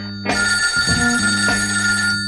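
A telephone bell rings loudly, one continuous, bright metallic trill lasting about two seconds after a brief quiet start, with no voices over it.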